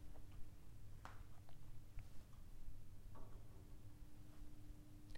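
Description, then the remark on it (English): Faint, sharp ticks of a clock at roughly one-second intervals during a guided breathing and relaxation session, heard quietly over a low, steady hum, with no voices. “The sound of the clock, my voice, your breathing, your heartbeat, your brain, your body.”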